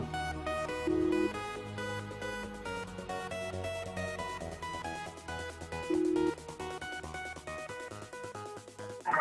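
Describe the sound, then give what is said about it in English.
A phone rings on an outgoing call as a bright, melodic ringtone plays continuously for several seconds, steady in loudness with repeating tonal phrases and no one speaking. “Pick up your phone and call her.”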